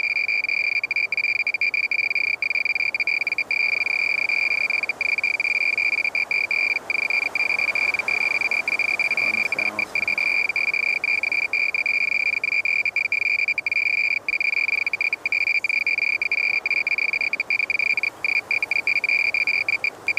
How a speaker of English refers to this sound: As we listen to the rattling sound of the radiation meter, we suddenly think of a totally different crisis.